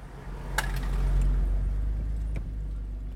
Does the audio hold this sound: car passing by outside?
yes